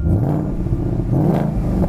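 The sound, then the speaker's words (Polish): A car engine at a cold start runs loud with a deep, burbling rumble, revving up in a brief surge of rising pitch before settling back, with no voices over it. “Sąsiedzi by cię znienawidzili, dlatego producenci wymyślili, że przy starcie może nie bulgotać, żeby nie budzić wszystkich i to jest...”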